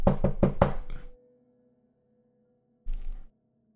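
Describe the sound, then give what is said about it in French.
Four quick, loud knocks on a door land close together in the first second, followed after a short silence by a single duller thud. “Ah, il y a quelqu'un à la porte, apparemment.”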